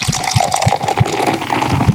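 Beer from an old batch by Brasseurs du Monde pours steadily into a glass, a continuous gurgling stream with rhythmic low glugs roughly every third of a second. It is fairly loud, with no talking.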